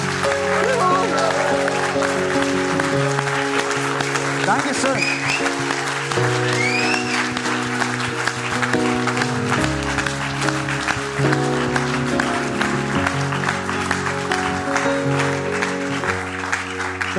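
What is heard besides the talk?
audience clapping and cheering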